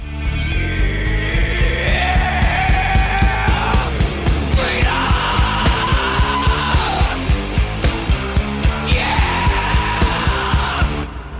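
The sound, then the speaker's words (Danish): Loud rap-metal plays at full intensity throughout, with a raw shouted vocal riding over pounding, steady drums and a dense wall of distorted guitar. “Eller de, de visker det faktisk øh, på pladen. Og så lige bagefter, så eksploderer det hele fuldstændig vanvittigt.”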